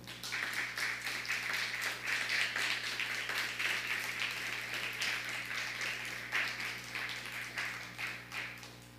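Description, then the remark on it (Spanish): Steady applause from a crowd welcoming a family from Nicaragua fills the whole stretch, a dense rapid patter of many hands clapping at once, continuous, with a low constant hum underneath and no talking. “¿Por qué no le, saludamos con un fuerte aplauso?”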